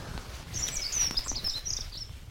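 A dunnock sings a quick, thin, high-pitched warbling phrase lasting about a second and a half, fairly faint over a low background rumble, with no one talking.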